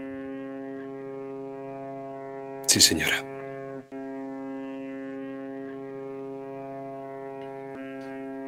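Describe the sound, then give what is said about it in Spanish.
A departing steamboat's horn sounds one long, steady, droning blast as the boat leaves the dock, holding for the whole stretch, loud and rich in tone, while a voice briefly speaks partway through. “Y es que eso que se escucha de fondo es la bocina de un barco de vapor. Y no de uno que llega al muelle, sino de uno que se está yendo.”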